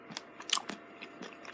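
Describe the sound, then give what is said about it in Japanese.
Wet, crunchy chewing of Lawson takowasa (octopus with wasabi): a series of irregular bites and squelches, moderately loud with sharp crackly bursts, and no talking over it. “あ、タコワサ美味しいねって話ですね。ローソンのタコワサ僕いいですね。”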